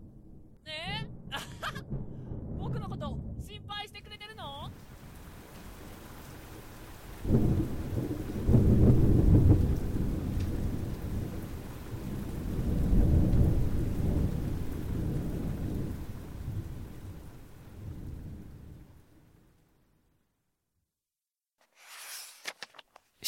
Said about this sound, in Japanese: わあ雷だ